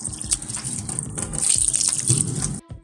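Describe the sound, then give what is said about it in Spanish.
A fruit seed dropped by a monkey from a tree splashes into water, followed by a steady gushing, sloshing wash that stays fairly loud for over two seconds before cutting off abruptly. “La pepa siempre caía en el agua.”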